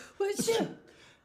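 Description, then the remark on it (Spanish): A single sneeze acted out by a voice: a short voiced 'ah' intake, then a sharp, breathy 'choo' burst with a brief tonal tail, fairly loud, with no talking over it. “¿Cuando alguien estornuda?”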